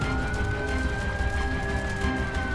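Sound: fire engine siren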